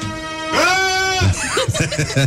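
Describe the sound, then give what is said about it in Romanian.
In a studio, a person imitates a goat as heard in rock music, letting out one loud, nasal, wavering bleat held for almost a second, followed right away by a short stretch of speech. “de imitat uh, capre din, uh, din muzica rock.”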